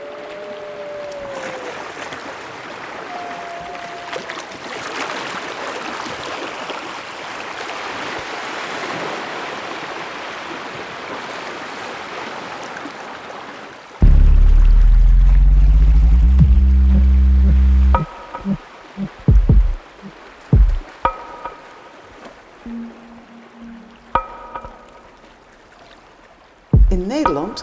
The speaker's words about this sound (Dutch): kijken we naar de zee die tegen onze dijken aanklotst. En wij noemen dat de Noordzee.